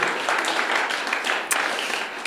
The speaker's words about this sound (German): Einfach ein, vielleicht gebt ihr euch mal selber einen Applaus für das. Dankeschön. Habt ihr verdient.